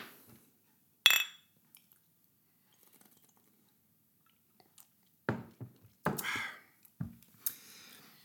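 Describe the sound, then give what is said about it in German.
One bright, ringing clink of glasses in near silence, followed a few seconds later by a run of soft gulping and mouth sounds as someone drinks. “Ich sage jetzt erstmal Prost. Prost.”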